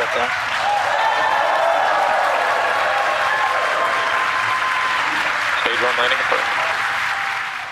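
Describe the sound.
A large crowd cheers and applauds loudly and continuously as a SpaceX Falcon 9 rocket's first stage lands after launch, the 115th Falcon 9 landing; a dense roar of clapping and shouting voices stays strong throughout before easing slightly at the end.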